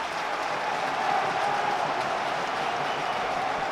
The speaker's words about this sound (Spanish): Se retira Miquel Merino ejerciendo también de capitán, diciéndole a la gente que anime, ...entra Nola Sagasti y Sadik Umar. A ver la ovación a Sadik, que va mucho en esta ovación, ¿eh?